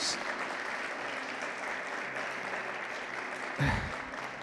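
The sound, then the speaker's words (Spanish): Steady, dense applause from an audience giving a round of applause to God, a continuous wash of clapping that holds at an even level, with a brief louder swell near the end. “Dale un aplauso a Dios.”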